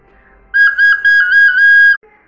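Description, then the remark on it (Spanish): A flute plays one high, sustained note for about a second and a half, loud, with slight wavering and brief dips in breath before it cuts off. “Cuando se acercaban, había una flauta sobre el tronco.”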